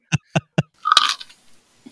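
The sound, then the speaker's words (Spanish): Three sharp, evenly spaced crunches of someone biting into crunchy food, followed by a brighter clinking impact that rings briefly and fades. “Está muy crocante. Está muy crujiente.”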